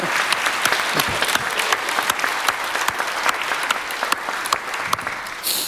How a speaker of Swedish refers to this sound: En, en, en stor applåd. Och ni ska få varsin. En stor applåd!